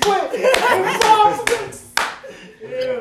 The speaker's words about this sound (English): Before we go any further, bro, we gotta give a round of applause for the white mouth activists.